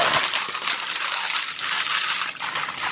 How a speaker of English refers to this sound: I've eaten so many freaking chips, dude. This Doritos bag is almost full.